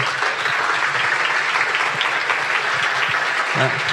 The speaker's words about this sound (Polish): Ogromne brawa.